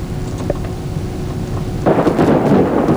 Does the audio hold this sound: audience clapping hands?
no